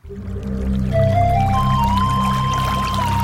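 Water pours steadily into a vessel, its hollow ringing tone climbing in pitch as the container fills. Fairly loud, with a low rumbling splash underneath and no talking.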